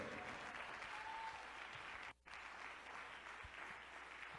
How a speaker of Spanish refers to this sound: Y denle el aplauso fuerte al Señor que Él vive y reina. Vamos, más fuerte que eso, por favor. Aunque te duela las manos, déselo por un minuto más fuerte.